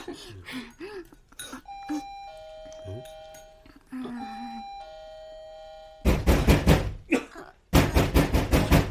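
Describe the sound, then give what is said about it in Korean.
A voice speaks briefly, then someone rings the doorbell of the house across the way, its sustained electronic tones sounding twice over, and follows with loud, rapid pounding knocks in two hurried bursts, getting no answer. “아무리 배를 누르고 두드려도 대답이 없어서 말이야.”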